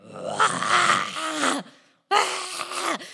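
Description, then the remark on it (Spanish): A voice imitates a desperate, roaring scream in two long, strained bursts separated by a brief pause, loud, with no words spoken, recalling screams heard one early morning while people slept in an apartment. “Y una noche, una noche, una madrugada, estábamos tranquilos, dormidos, y en eso empezamos a oír un así rugido, así de...”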